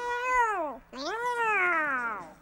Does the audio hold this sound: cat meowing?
yes